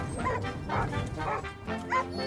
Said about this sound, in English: she'll wind fast up and he'll start barking, and there'll be a cacophony of barks until we get to the car park.